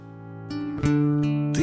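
A band's song begins with sustained, rich instrumental chords that change every half second or so, building slightly in loudness, with no singing yet.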